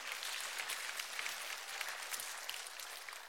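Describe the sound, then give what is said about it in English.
Audience applause welcoming two people called up to help with a sermon: a steady wash of many hands clapping, dense and crackling with no clear individual beats, holding at an even level throughout with no voices on top. “Yeah, you can clap for him.”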